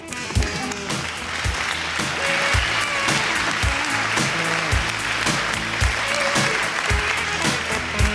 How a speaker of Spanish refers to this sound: Eh, un aplauso para